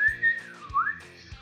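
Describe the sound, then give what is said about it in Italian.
A shrill, reedy whistle from a Melody Pop whistle lollipop in an advert, holding a high tone that dips and slides back up, with soft low thumps at steady intervals beneath it. “Intanto qui ci dicono come pubblicità normali melody pop, i lecca che suonavano. Ah, ok, quella specie di fischietti lì.”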